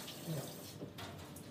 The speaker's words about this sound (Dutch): die gaat het vocht uit de aubergine duwen.